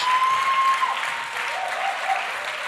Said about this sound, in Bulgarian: О, ако искаш да му дадеш дарение на ръкопляскане, ръкопляскай, като че наистина го вярваш.